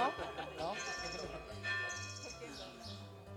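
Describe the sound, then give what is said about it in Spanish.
Bells ring on and on in a dense, overlapping peal, their sustained metallic tones layering over one another at a steady, fairly loud level for the whole stretch. “A que nadie sabía que duraban tanto las campanas.”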